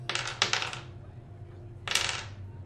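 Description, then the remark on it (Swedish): Dice, rolled by a player for the group, clatter across a hard table in a quick rattling burst, then a second tumbling roll follows about a second later, both fairly sharp with no talking. “Jag ska slå oss.”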